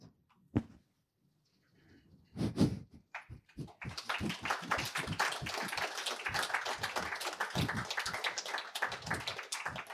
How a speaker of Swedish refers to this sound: Tack, det kändes som att det förtjänades en applåd och inte att vi kom in med någonting annat.